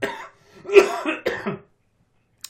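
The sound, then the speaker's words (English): A loud burst of several harsh coughs in quick succession, followed by a brief pause and a tiny faint click near the end. “I have to do a cough.”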